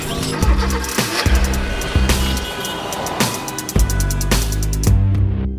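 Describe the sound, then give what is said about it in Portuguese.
A car engine runs loudly, with a steady rumble and repeated surges in intensity, and no talking over it. “Ora, o carro está ligado e, portanto, tudo pronto para mais uma Operação Stop”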